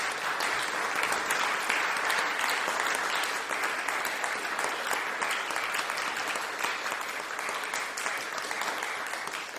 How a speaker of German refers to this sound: Also entweder man hört die Elster der Enttäuschung schreien oder es gibt Applaus. Das heißt, in deinem Fall gibt es den Ansbacher Applaus.